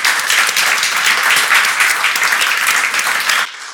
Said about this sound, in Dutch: Ik wil jullie ook allemaal heel erg bedanken voor het komen. Graag een hartelijk applaus voor de vier sprekers. Dank.